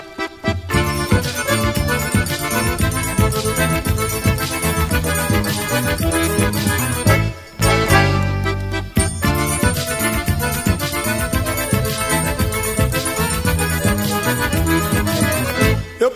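Lively forró trio music plays loud and continuous, with a steady bouncing bass beat and bright accordion-like tones, briefly dropping out for a moment partway through before resuming.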